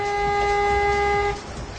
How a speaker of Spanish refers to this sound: Ahí paró su oh, alarma. Dice, gracias a Dios la paró.